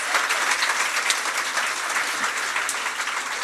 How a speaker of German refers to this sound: Applaus für euch. Das nice.